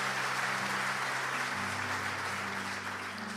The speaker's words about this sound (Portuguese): Glória a Deus. Pode aplaudir o Senhor. Glória a Deus.